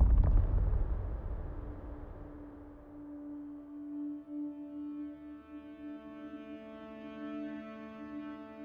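A heavy rumbling crash of stones falling to the ground bursts out at the start and quickly fades, leaving a steady low droning tone that hangs on to the end.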